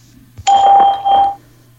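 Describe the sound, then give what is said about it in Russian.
An electronic signal tone from the Skype call testing service, sounding before recording of a message of up to 10 seconds begins: a steady pitched chime with bright overtones lasting under a second, a brief dip, then trailing off, heard alone over faint hum. “После сигнала Начнется запись вашего сообщения длительностью до 10 секунд.”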